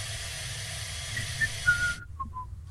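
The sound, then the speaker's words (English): An effervescent tablet fizzes in water, a steady bright hiss lasting about two seconds before cutting off abruptly, with a few faint whistly squeaks and a low rumble underneath. “Plop, plop, fizz, fizz. Oh, what a relief it is.”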